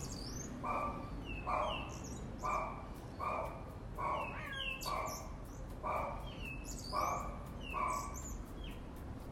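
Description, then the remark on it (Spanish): Small birds chirp and twitter outdoors behind an apartment building in quick, scattered high calls, while a steady run of rhythmic barking-like bursts sounds in the background throughout. “Y ahí nos hemos puesto a escuchar estos pajaritos.”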